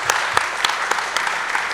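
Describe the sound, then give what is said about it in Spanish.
An audience applauds steadily for the two speakers at the end of a talk, a dense wash of many hands clapping with sharper individual claps popping out at irregular moments, fairly loud throughout and without voices. “Un aplauso para los dos disertantes.”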